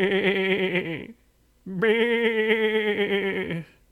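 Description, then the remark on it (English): Two long, wavering, loud sheep bleats separated by a short pause; the quavering, nasal cries sound like a human voice imitating a sheep. “And she said, Oh no, I, I think I hear a sheep. It sounds like it's in trouble because it was going brr, brr, like that.”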